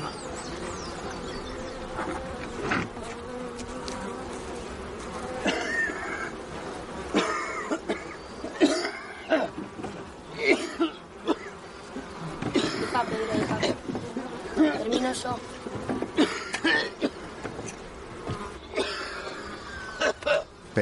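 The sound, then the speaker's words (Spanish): A man coughs heavily in repeated harsh bursts over a steady buzzing of bees swarming around, as he attaches a small framed grid holding several queen bees to a beehive. “Lo pega en la colmena y comienza a toser.”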